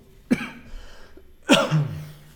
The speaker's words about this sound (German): Deswegen kann es halt vielleicht mal sein, dass ich mich da kurz wegdrehen muss, zum halt kurz husten zu müssen, so damit ich da nicht gleich ins Mikrofon huste.